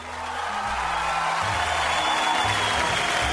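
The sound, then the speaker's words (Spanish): Steady applause from a crowd, a dense, even wash of clapping that holds at the same fairly loud level for a few seconds, with a faint low hum underneath and no voices. “Aplausos para mí, por favor.”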